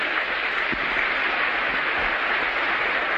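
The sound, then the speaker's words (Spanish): Steady applause from an audience, a dense, sustained wash of many hands clapping at even loudness throughout, with no voices heard over it. “¿Por qué no se dan un aplauso?”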